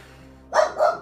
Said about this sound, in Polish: Słyszysz, jak u sąsiada pies szczeka za ścianą.